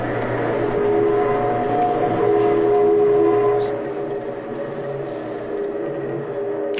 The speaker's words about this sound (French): petit caillou, fixé au bout d'un bras, comme le bras d'un tourne-disque, je peux pas te dire mieux, qui frotte dessus pendant qu'il tourne